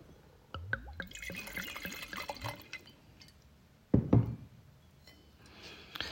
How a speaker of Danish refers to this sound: Jeg hælder lige op.